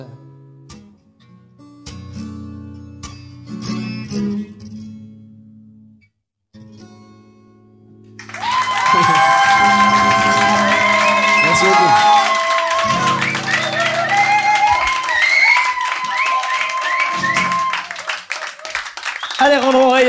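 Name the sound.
audience applause and cheering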